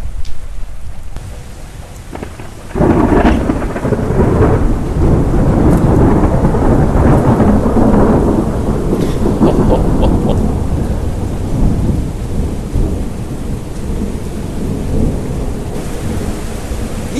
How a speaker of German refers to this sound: weil es scheint sich hier gerade ein Gewitter zu nähern